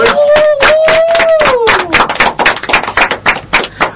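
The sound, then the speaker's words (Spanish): Loud audience applause, dense and steady for about four seconds, with a voice cheering in a long falling whoop during the first two seconds before the clapping carries on alone. “Quiero pedir un aplauso para los chicos de Ana y En, em, por favor.”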